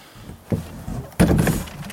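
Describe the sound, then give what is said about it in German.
A hatch on a dog trailer is opened: a sharp latch click, a short pause, then a louder metallic clatter and rattle as the door swings open. “Und jetzt öffnet Manfred die Luke”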